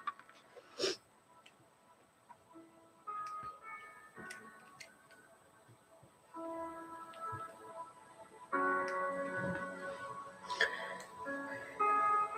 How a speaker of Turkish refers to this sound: Hmm, o zaman müzik sesini birazcık daha öne getireyim.